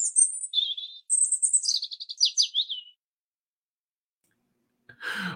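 small bird chirping

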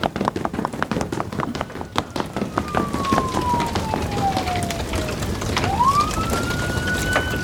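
police car siren

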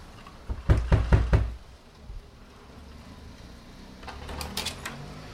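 knocking on a door

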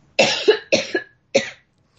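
coughing

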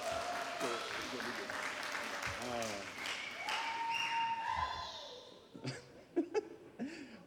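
audience round of applause

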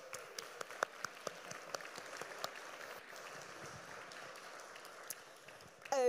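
audience clapping

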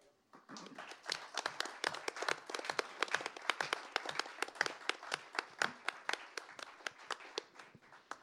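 audience clapping

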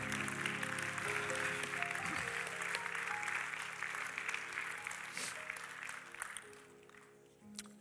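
audience clapping hands

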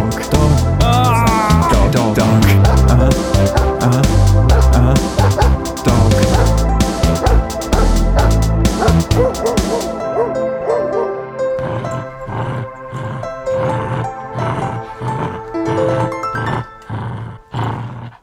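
news segment jingle

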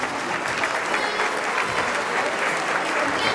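audience applause

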